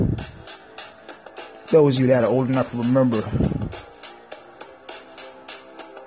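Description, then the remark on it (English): A steady, beat-driven music track plays in the background with regular percussive pulses; a man talks over it briefly in the middle, then the music carries on alone at a moderate level. “But if you hear that, hear that that that that music in the background, that track,”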